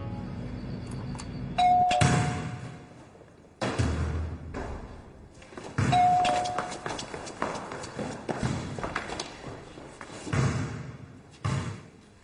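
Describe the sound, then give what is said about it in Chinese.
A doorbell rings twice, each time a short, clear tone, followed by hurried thumping footsteps and bangs like someone running and a door slamming. “怎么人家一按门铃，他通上电了？”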